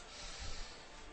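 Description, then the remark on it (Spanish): A brief, steady papery rustle of the pages of the book "Barranco de Badajoz" being flipped quickly on a table, with a soft low thump midway and no voices. “acabas de, de, editar este libro que tenemos encima de la mesa, que suena así, sus páginas pasando suenan así, Barranco de Badajoz.”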